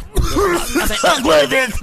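A string of harsh, voiced coughs comes in quick succession, about five strained bursts, loud and rough, with no gap between them.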